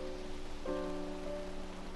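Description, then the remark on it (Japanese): Steady rain patters on a surface in a continuous hiss, with sustained low tones droning underneath that shift pitch partway through. No one speaks. “雨だから。”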